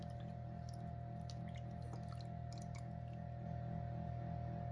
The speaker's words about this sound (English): Now, this is lemon juice, I believe. Yeah. This is juice of two lemons. We're going to pour this into our food processor.